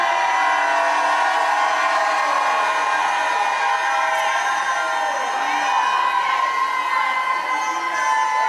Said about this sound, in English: Come on, if you believe it, shout like you never shouted in your life.